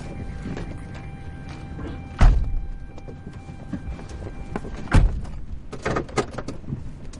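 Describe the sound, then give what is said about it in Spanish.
Two heavy slams of a pickup truck's doors shutting in the desert, a few seconds apart, over a low rumbling background, followed by several lighter knocks and clunks as the truck drives away. No one speaks. “Hank sube a la camioneta y se marcha, abandonando al chico en el desierto.”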